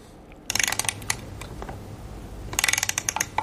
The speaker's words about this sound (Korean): 이 소리. 일부에 나가는 노래 중에, 아, 오르골 소리가 나는구나. 예. 오르골 태엽 감고 오르골 소리가 나니까 그래도 음악 소리에 묻혀서 예, 여러분들 잘 찾으셔야 되겠습니다.